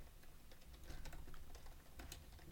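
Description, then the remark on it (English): Rapid typing on a computer keyboard into Google Translate, a steady run of light clicky keystrokes with a few sharper taps, fairly quiet, with no voices. “What I'm what I'm gonna type right now because my English is not the best.”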